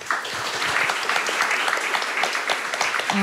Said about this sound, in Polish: I brawa dla Natalii.